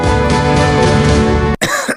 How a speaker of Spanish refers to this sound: ¿Cansado de toser?